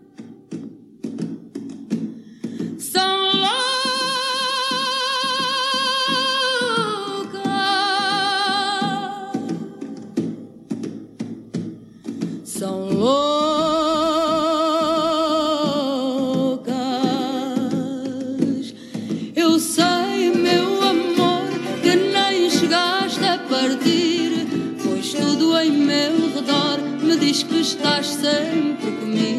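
A Portuguese fado song plays, with a singing voice holding long, wavering notes over steady plucked guitar, followed by a busier passage of rapid guitar picking.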